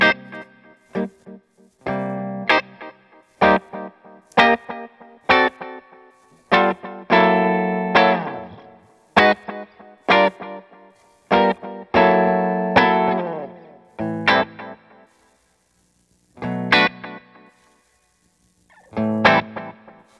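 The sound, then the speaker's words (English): Electric guitar played through a delay pedal that looks like a DeLorean, in a studio, with the reverb turned off: bright, sharply picked notes and chords, each trailing off into repeating echoes that smear together, with brief gaps near the end. No talking. “I want to hear the delay just totally by itself.”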